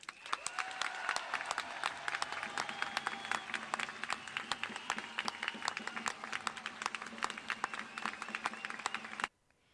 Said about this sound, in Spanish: Por cierto, aprovecho para pedir un aplauso para la sanidad pública.